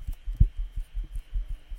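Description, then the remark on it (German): A thin tin metal sign wobbles and flexes, making a quick run of low, hollow thumps and warbles in an uneven rhythm. It is fairly quiet, with no voices. “Und das macht diese typischen Blechgeräusche, hör mal.”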